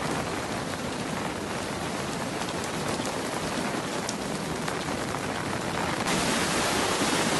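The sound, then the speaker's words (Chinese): Heavy typhoon rain pours down in a steady, dense hiss, mixed with the constant roar of flood water rushing down from the mountain into a village stream running very high. The noise stays loud throughout and turns smoother and more even near the end, with no voices. “洪水不停地从山上涌下来，上面的山洪一旦大起来，我这里的路面也是要被淹没的。”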